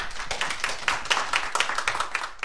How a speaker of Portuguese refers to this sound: A gravação segue até ao fim sem sobressaltos. Que, sendo absolutamente moderna, é também totalmente clássica. No final, os aplausos do público.